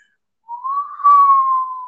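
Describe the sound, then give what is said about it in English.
A person whistles a single sustained note, mimicking the wind, that rises gently in pitch and then holds steady for about a second and a half. It is fairly loud, with no talking over it. “the wind of time, the wind of history. You hear that? You hear that?”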